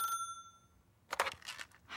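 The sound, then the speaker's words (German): A telephone's bright ringing tone sounds briefly at the start and cuts off, followed by a short silence and then bursts of rustling and clattering, with no voices. “Oh, das Telefon klingelt.”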